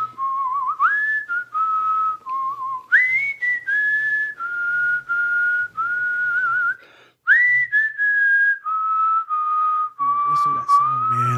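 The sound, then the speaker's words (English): Someone whistles a slow, steady Christmas song melody, clear, with held notes gliding between pitches and brief pauses between phrases. “you know how my grandfather was like everything to me man for real uh the only grandfather i ever knew he would whistle that song”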